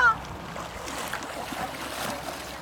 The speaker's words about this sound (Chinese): 嗯，这里是一个黄石的一个温泉的小溪。